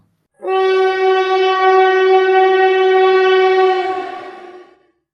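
A single long, steady blast of a train horn on a railway, loud, holding one bright tone for about four seconds before fading out, with no talking.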